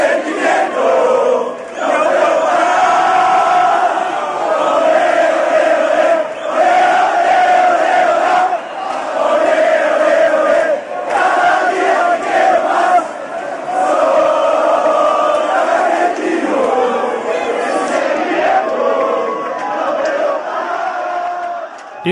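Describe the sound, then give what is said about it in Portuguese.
A large crowd of Argentine football supporters chants a terrace song in unison, loud and sustained for the whole stretch, voices swelling together with only brief breaths between phrases. “Inclusive, eles cantam às vezes Sou Centralista, que é uma homenagem à ah, Central”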